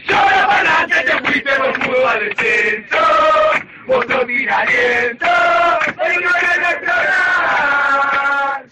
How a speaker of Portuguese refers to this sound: Teve uma versão muito cantada pela torcida do News Old Boys para zoar o rebaixamento do Rosário Central no campeonato argentino.